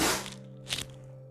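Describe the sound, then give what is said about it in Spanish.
A single sharp, breathy sneeze bursts out after a loud opening rush of noise, with a steady low hum lingering underneath and no talking. “Salud.”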